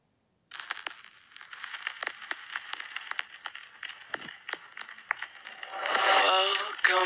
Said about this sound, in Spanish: Así que ahora sonará fuerte y te mantendrá hipnotizado con la música.